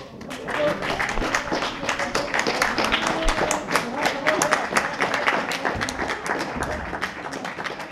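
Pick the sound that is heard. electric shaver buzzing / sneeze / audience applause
audience applause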